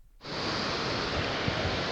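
babbling mountain stream water

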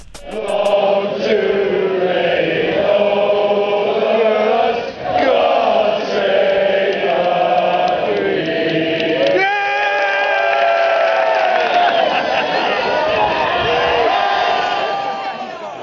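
crowd

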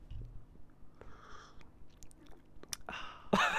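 sipping a hot drink

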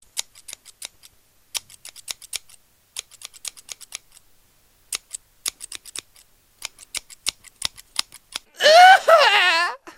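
scissors cutting

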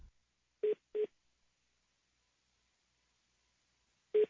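telephone keypad dialing tones

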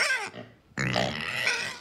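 pigs grunting and oinking

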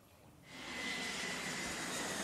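airplane flying

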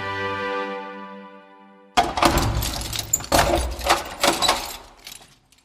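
keys jangling

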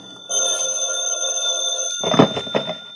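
telephone bell ringing

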